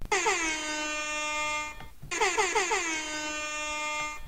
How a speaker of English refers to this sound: Um, the the uh, the last one for sure. DJ uh, Airhorn. DJ Airhorn.